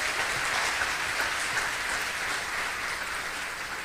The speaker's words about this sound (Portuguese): Vamos aplaudir o Senhor Jesus por isso. Glória a Deus.